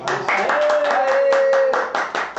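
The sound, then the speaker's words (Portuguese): Steady, fairly quick hand clapping after a trio's music rehearsal, about a dozen sharp claps in a row, with a voice holding a long sustained note over part of the applause. “Eu só não bato palmas agora porque eu tô com um copo, mas vou largar o copo.”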